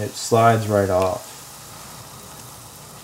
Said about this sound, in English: That's the sound of the batter covered iron being dipped into the hot lard. It's almost like a blossoming flower.